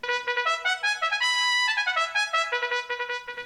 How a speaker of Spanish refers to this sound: Se oyen los acordeones. Se deja sentir la trompeta.